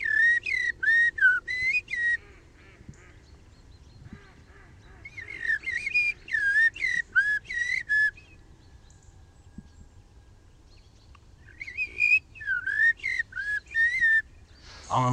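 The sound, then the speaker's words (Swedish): A person whistles bird-like calls in quick, warbling bursts, pausing between phrases, imitating birdsong, fairly loud with no talking. “Man har hört talas om att du är duktig på att härma fåglar också.”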